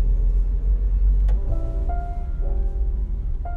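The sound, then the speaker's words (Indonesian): An angkot (public minibus) engine rumbles and pulls away just as a young primary schoolchild chasing it almost reaches it, its low drone rising in pitch as it accelerates along the street, with a brief clack partway through and no voices. “aduh kasihan itu barusan ada anak kecil anak SD dia lagi ngejar angkot terus udah mau nyampe angkotnya jalan aduh ya mudah-mudahan dapat angkot yang lain di belakangnya”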